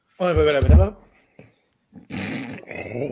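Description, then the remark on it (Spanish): A person imitates a revving engine with a loud, gravelly, snore-like growl from the throat, then after a short pause makes more rough, rumbling vocal noises. “No, weón, es que tú me dices peta el motor, yo me duermo y ronco, pe, weón.”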